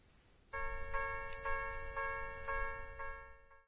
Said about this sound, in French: C'est le son qu'on entend à un passage à niveau En français, c'est tatak-tatoum, n'est-ce pas Oui. En japonais, on exprime cela ainsi. Kan, kan, kan.